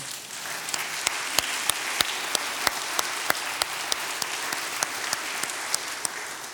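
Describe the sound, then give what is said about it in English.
An audience claps hands together in sustained praise, a dense wash of applause filling the room, with a few sharper, louder claps standing out at irregular intervals throughout. “And for that alone, you ought to give God a hand clap of praise.”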